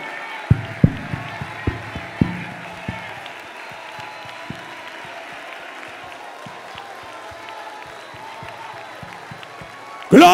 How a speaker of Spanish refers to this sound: Aplaude y alaba, alaba con tus labios.